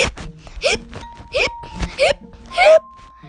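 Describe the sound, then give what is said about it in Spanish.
A voice imitates a giraffe's hiccups, producing about four sharp, squeaky gulping bursts spaced at a steady rhythm. The sounds are fairly loud, with no talking between them. “Pero un día, cuando la jirafa mía se estaba acostando lentamente ese día, le dio un terrible hipo.”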